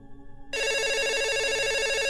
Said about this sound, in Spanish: Entonces, escucho que suena el teléfono y yo estaba haciendo otras cosas en el jardín de la casa.